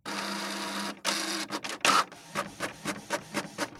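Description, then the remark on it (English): A printer prints a coloring page: a steady mechanical whir, then a series of rhythmic clicks and feed pulses, moderately loud, with no talking. “Just click it and print it.”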